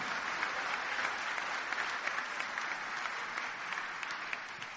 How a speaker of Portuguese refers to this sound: Aplauda o Senhor. Glorifique para Ele.